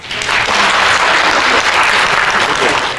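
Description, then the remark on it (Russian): Sustained applause from a crowd at a ceremony honoring schoolchildren in the Irkutsk region, a dense, even wash of many hands clapping at steady loudness for about three seconds, with no voices standing out. “Аплодисменты, фото на память и заветный дневник в руках.”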